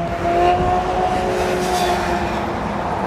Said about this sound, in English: I'm walking over the freeway and it's very loud.